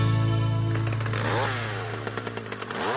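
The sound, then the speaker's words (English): A small gas-powered Stihl tool engine idles loudly, then revs up and down in a few sharp bursts, with a high whining buzz and no voices. “Love my Stihl power tools, S T I H L”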